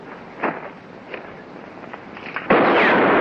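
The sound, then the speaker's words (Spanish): A revolver gunshot fired by Liberty that strikes near a dropped gun: two softer sharp pops come first, then a loud, harsh blast whose noisy roar carries on to the end. No one speaks. “El disparo de Liberty da cerca del arma.”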